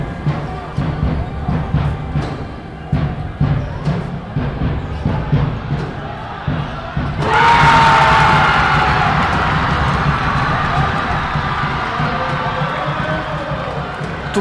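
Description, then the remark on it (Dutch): Steady, rhythmic drum beats pound beneath a noisy korfball crowd, then halfway through a loud roar of cheering erupts and keeps going, with a brief shrill whistle-like tone rising over it, as fans celebrate Taiwan's 21-19 win over Belgium. “trommels. Mensen die uitzinnig waren vanwege de 21-19 overwinning van Taiwan op België.”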